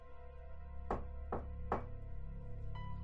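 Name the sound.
knocking on a door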